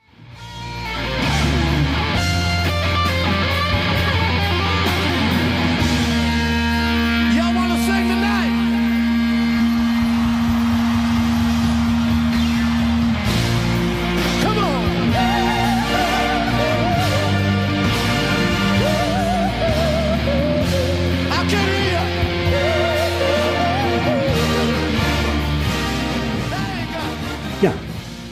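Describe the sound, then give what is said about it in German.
A live concert performance of a song medley from the end of a show, played in pouring rain: loud, dense full-band music with steady bass and sustained tones, shifting partway through into a different passage, playing continuously for the whole stretch. “Also ich spiele ja. mal kurz was an, das ist aus dem Schluss, er spielt so ein kleines Medley und spielt ein paar Songs an”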